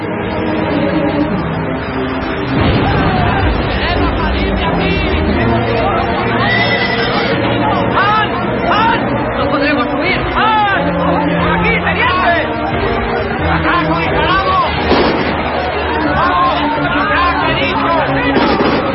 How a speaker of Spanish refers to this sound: Se unen a los hombres que se agolpan junto al avión.